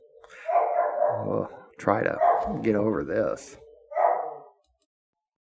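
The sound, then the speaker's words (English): The speaker's own dog barks in short bursts mixed in with someone talking, the barks fairly loud, partly blending into the speech. “That's my dog barking, one of the wonderful dogs that I have.”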